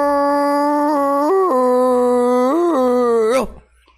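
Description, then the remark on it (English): A person imitates their dog howling in the middle of a dream with one long, sustained vocal tone, fairly loud, wavering up and down in pitch for about three seconds before cutting off abruptly. “I'll be half asleep sometimes, and this dog will become, a, will just have a seizure, sometimes start barking, sometimes he'll howl.”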